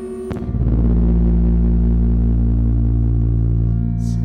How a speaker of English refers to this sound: It's talking to me with a heartbeat. It sounds like a heartbeat on an ultrasound.